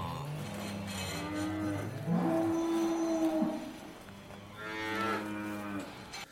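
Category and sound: animal, dairy cows mooing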